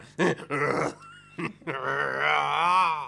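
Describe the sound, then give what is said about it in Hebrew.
A man's voice imitates a T. rex dinosaur roar: a few short guttural bursts, then a long, drawn-out growling roar that wavers in pitch, loud, with no talking. “עכשיו אני מזהה עם דינוזאור, תראה.”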